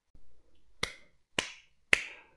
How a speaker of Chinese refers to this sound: 我笑着连连拍手鼓掌，进了店里。